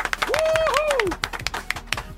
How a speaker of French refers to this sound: On s'applaudit.